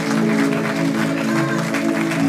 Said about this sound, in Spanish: Hay que darlo más fuerte porque Dios es bueno. Muy fuerte, muy fuerte. Que ese aplauso salga del corazón.